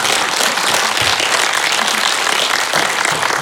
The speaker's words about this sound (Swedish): En stor applåd. Tack.